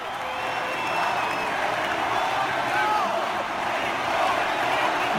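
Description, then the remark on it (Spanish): A large concert crowd applauds steadily during the intro before the band's vocalist speaks, a dense wash of clapping and cheering with scattered whistles and shouts rising above it, sustained at an even, loud level throughout. “nada más ahí es el, el aplauso, el intro en lo que le están”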